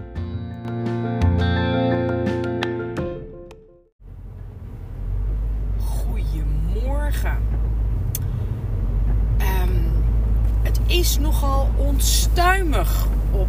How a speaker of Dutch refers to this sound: Uh, ik zit in de auto en dat is voor mij vaak zo'n heerlijk podcastmoment.